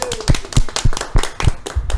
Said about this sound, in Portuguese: Uma salva de palmas pro novo membro. Uhul!